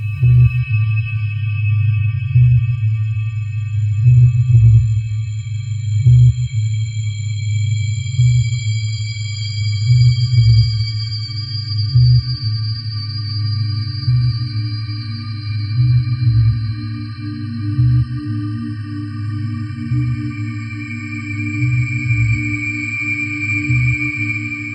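Electroacoustic remix music with sustained, sonar-like high tones layered over a loud, steadily pulsing low drone, evenly rhythmic and continuous throughout, with no voices.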